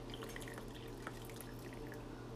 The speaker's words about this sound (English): but yeah, I'm just gonna pour my tea. And you might hear that. I don't know.